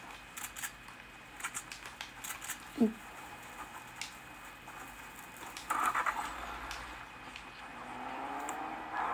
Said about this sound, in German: Ich fahre jetzt extra mit Auto rum.